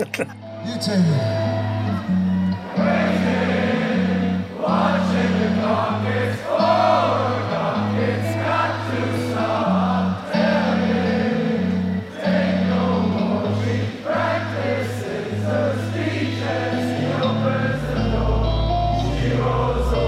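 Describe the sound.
A big European concert crowd roars and cheers nonstop, many voices with different European accents shouting and chanting together in a loud, dense wall of sound with a steady low hum underneath throughout.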